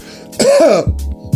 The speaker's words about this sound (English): Non COVID cough.